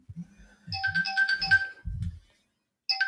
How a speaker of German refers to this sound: Richtig professionell, da schellt noch mein Handy. Sorry für die Unterbrechung.